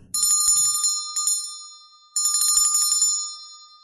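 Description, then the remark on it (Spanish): A bright, metallic bell chimes alone, struck a few times in slow succession, each ring lingering and fading before the next clear strike. “LAS DOCE CAMPANADAS”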